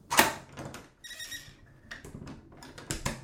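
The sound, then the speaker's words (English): The door of the former Phoenix Church opens: a heavy clunk of the latch, then a drawn-out, high-pitched hinge creak, followed by scuffing and a few softer knocks. “I tried the door anyway, and it opened.”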